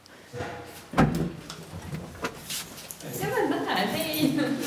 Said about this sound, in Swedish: arbetar på Folkrörelsearkivet och har sökt upp den bruna dörren för att knacka på.